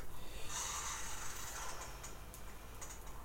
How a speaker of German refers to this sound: Achso, und jetzt brauche ich kurz mein äh, Handy um den Kurzzeitwecker. Moment. Ich habe doch einen Kurzzeitwecker sogar.